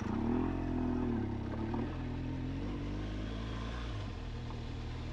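A motorcycle engine drones, rising briefly in pitch as the rider opens the throttle, then settling into a steady, rumbling run with faint clatter beneath it, ridden off-road in Enduro mode. No one speaks.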